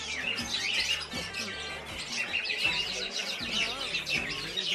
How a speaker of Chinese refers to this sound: 这是一个各类的鸟的这个一个一个市场，它里面 鸟的市场 啊，它里边有些什么鹦鹉啦，还有其他很多种类的鸟。